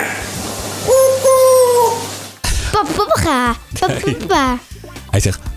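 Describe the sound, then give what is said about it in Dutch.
A parrot mimics human speech, starting with a drawn-out, steady whistle, then a burst of choppy, squawky word-like phrases, "papa, papa, kusje", in a strained, high-pitched voice. “Luister even naar De Papegaai. Papa, papa, papa. Hij zegt papa, papa, kusje.”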